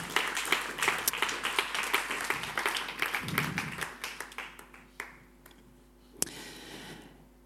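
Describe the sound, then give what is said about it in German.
A crowd applauds four people with dense, crackling hand claps that gradually thin out into scattered individual claps before fading, with a few isolated claps near the end. “Applaus für die wunderbaren vier da.”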